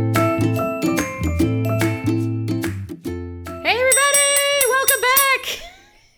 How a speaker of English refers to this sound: I'm just gonna ring my bell and yell into the microphone, and it's gonna be beautiful